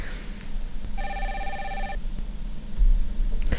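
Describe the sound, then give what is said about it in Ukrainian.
A telephone rings once, a steady, bright electronic trill lasting about a second, standing out clearly over a low background rumble, with no one speaking; it is the first caller phoning in to the live radio advice show Hodyna z ekspertom. “У нас вже є перший телефонний дзвіночок.”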